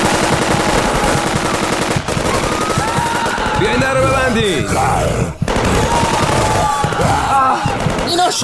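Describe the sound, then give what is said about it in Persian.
Rapid bursts of gunfire crackle almost nonstop, drawing steadily nearer, mixed with loud, urgent shouting and frantic voices throughout, with a couple of brief lulls between volleys. “صدای شلیک از تو رو هم شروع شد تقریبا چیزی نمونده بود بهمون همون برسن صدای شلیک روی نزدیکتر میشد و نزدیکتر”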